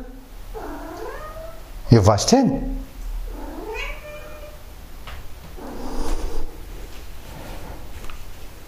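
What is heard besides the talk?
cat meowing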